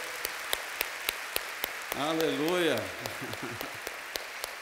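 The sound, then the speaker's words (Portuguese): Steady, evenly spaced claps keep time through the whole stretch, crisp and moderately loud, while a voice rises over them midway with a drawn-out, sung-sounding exclamation; a church audience applauding the people who attended the first service in January 1992. “Uma salva de palmas para essas pessoas.”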